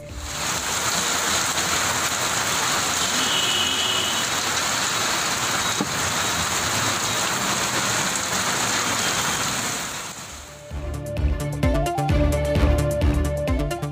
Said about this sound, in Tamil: தமிழகத்தின் பல்வேறு பகுதிகளில் மழை பொழிவு கோடை வெயிலுக்கு இதமளிப்பதாக பொதுமக்கள் மகிழ்ச்சி